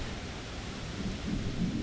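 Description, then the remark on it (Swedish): Steady, dense rain hisses across the whole clip while deep rumbles of thunder roll underneath, swelling slightly toward the end. The storm is in Prague. No voices, just the continuous wash of a storm. “Nu kommer det jättemycket regn på oss.”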